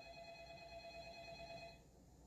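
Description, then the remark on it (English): A telephone rings with a steady, electronic trill that holds for nearly two seconds and then abruptly cuts off, heard on its own without any talking. “Pick up the phone. He's afraid of the phone.”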